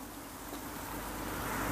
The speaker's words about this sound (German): Irgendwie ist hier jetzt gerade richtig viel los an der Straße. Aber hörst du das im Hintergrund, das Plätschern? Ach, herrlich. Ich liebe Wasser.